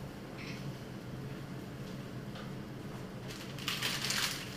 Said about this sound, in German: Und ich gebe die Spaghetti in das siedende, kochende Wasser.